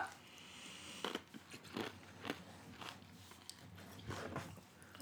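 Crisp crunching of a person chewing their last piece of ice, a series of sharp irregular bites and cracks over a faint steady background hum.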